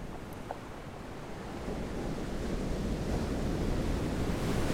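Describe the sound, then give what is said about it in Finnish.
Broad, steady rush of open sea waves with a low rumbling wash, swelling gradually louder over a few seconds, with some wind noise and no voices. “Avomeri. Jään tänne.”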